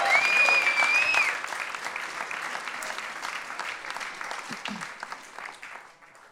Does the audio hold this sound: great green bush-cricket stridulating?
no